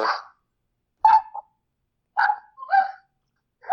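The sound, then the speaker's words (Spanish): A dog barks five times in short, irregularly spaced bursts, with a double bark near the middle, at moderate loudness and slightly distant, with no voices and silence between barks. “Pero su espíritu está ladrando necedades.”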